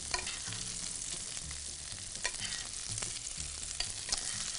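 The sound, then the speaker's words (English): Steady crackling sizzle of whole butter added to nearly cooked mushrooms in a pan, dense and continuous, with occasional sharper pops and low scraping stirs underneath; no one speaks. “And now, now that our mushrooms are just about cooked, I'm just going to add just a little bit of whole butter here to this pan.”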